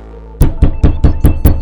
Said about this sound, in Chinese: 他靠近对面的门，用力拍着。